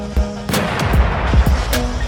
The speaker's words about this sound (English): Go ahead. Gunshot in the face.